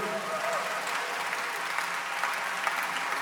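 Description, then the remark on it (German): Steady audience applause, a dense, even wash of clapping from many hands that holds at a constant level throughout, with a brief tonal note near the start. The audience is welcoming a man onto the stage, the leader of the Kinderexpress at ICF Zürich. “Was Applaus geht”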